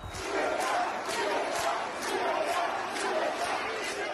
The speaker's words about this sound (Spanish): Tremendo. Así gritaron libertad los asistentes